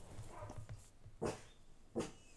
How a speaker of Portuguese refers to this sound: E ali a ladrar, filha da.